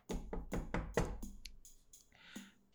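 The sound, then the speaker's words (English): A loud, heavy knock on a door: about five quick, solid raps in a row, booming, followed by a short ringing decay and quiet room noise, with no one speaking. “Big knock.”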